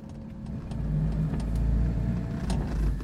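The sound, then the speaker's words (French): A car carrying three people rumbles steadily with a low, loud drone as it drives along and arrives at a house on a warm, sunny day, the hum rising slightly as it moves, with faint clicks and rattles over the top. “on est arrivé. Christophe, Sophie et Tom sortent de la voiture”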